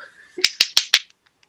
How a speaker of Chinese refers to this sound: 各位听众朋友，这是我的掌声